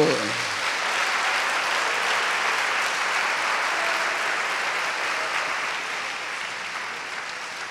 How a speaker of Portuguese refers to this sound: Vamos dar um aplauso.